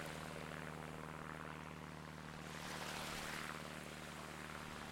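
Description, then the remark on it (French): A continuous, heavy drone of German propeller aircraft engines over coastal dunes near a lighthouse and Mont Saint-Frieux fills the whole stretch, loud and steady, with a slight swell in the middle as if planes pass overhead. No one speaks. “D'un côté le phare, de l'autre le Mont Saint-Frieux, les dunes et quelques avions allemands qui me rappellent que je n'ai rien à faire là”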